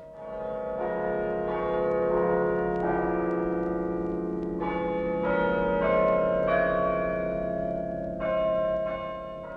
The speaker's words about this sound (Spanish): Y se pusieron muchas clavijas hasta llegar al carrillón que tiene muchas clavijas conectadas a muchas campanas. Así, al girar el cilindro, va tocando melodías programadas de antemano.